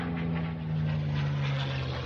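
A steady, droning airplane engine sound effect hums with a low, constant pitch and a broad rushing roar, holding at an even loudness throughout, with no voices.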